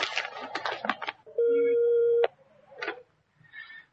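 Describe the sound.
A telephone rings once with a call from someone at television: a loud, steady electronic tone held for just under a second. It follows a moment of indistinct talking, and a few faint knocks and rustles come after.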